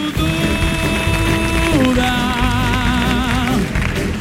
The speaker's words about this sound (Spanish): Ahora sí, fuerte el aplauso para, para Marlender. Magnífica disertación.